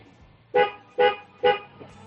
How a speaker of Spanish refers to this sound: Venga, dale, tres toquecitos ahí cortitos, a ver cómo suena el claxon. Ahí va.